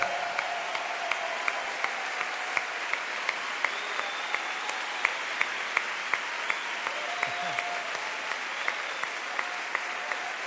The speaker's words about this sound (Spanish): será que você pode aplaudir? com tudo que há em ti? Vai, vai, aplauda, aplauda, aplauda, aplauda, aplauda!